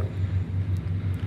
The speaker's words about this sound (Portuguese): É é, é, é, não, isso é um trem